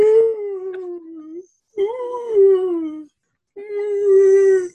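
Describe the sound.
A voice imitates a whale call with three long, moaning tones that rise and slide in pitch, separated by short pauses, fairly loud with no talking.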